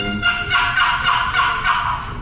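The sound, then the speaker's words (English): Raspy, sweeping turkey call notes made by a turkey hunter run together for a couple of seconds, loud, rising and falling in a steady series with no talking. “Don't make all those sweeping noises I just”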